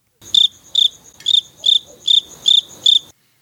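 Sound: crickets chirping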